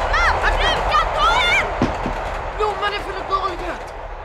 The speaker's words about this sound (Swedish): Nu gungar marken under oss. Det är fruktansvärt. Vi vet inte vad det är. Tåget! Det är bara tåget! Åh, oh, vad läskigt! Det är snälltåget!